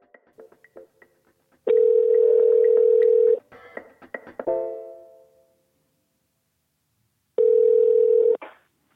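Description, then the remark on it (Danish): An outgoing phone call's ringing tone on a call from Denmark to War Resisters International: a few soft line clicks, then a long steady hum-like ring, a clunk, several seconds of silence, and a second identical ring. No voices. “Dem ringer jeg til sidste uge. Det synes jeg, jeg gerne vil spille for dig nu.”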